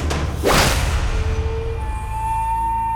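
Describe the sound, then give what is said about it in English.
A large, heavy wooden oar whooshes through the air and smashes across a large human's head on a riverbank with a blunt, solid thunk, followed by a faint lingering ring as things settle. A single loud swing-and-strike with no voices. “A large wooden oar smashed across the large human's head.”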